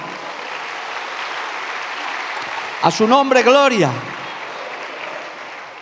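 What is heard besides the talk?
audience applauding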